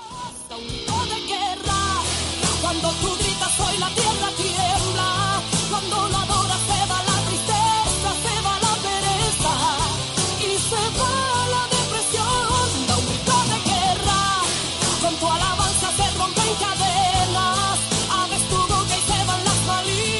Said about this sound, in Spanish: Vamos a escuchar esta alabanza.